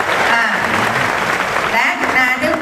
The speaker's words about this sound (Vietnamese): hãy dành một tràng pháo tay cho em quay ngày hôm nay